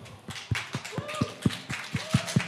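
Steady hand clapping, about a dozen sharp, crisp claps in a quick even rhythm, an audience applauding as Player 1 is introduced, with a faint tonal murmur underneath.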